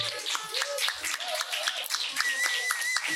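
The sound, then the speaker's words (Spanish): A group claps steadily for a few seconds, a dense patter of crisp hand claps with faint voices mixed in underneath. “hay que darle un aplausito, por favor, que lleva todas las jornadas currando.”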